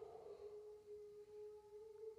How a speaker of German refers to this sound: Das ist der Hund.